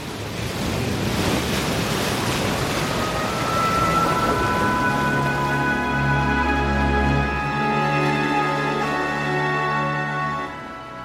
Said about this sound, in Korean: 섬의 어둠은 일찍 찾아온다. 밤의 경계를 파도 소리가 일깨워주고 까무룩 모두가 영원히 잠들 것 같이 어둠이 짙다.